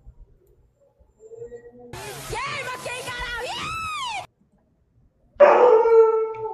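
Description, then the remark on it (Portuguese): A dog howls in long, wavering, rising and falling cries for a couple of seconds, then goes quiet before a brief burst of noisy sound at the end. “Ó, o cachorro, até o cachorro deu quengaral.”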